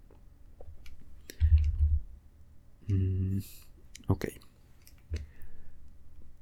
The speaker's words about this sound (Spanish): Es que de verdad no quiero hacer tanto clic, pero si switcheo ventanas con, con el teclado, se escucha mucho la vibración, entonces ya veré, ya veré qué hago.